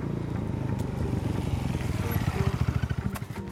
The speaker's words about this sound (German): Ein Motorradkurier rast die Straße hinunter auf die städtische Klinik zu.